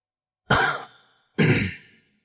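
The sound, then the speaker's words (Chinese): Two soft, breathy coughs about a second apart from someone opposite a man locked in a cage, each a short rasping burst that trails off, with silence around them and no talking. “男人对面传出来了一阵轻轻的咳嗽声”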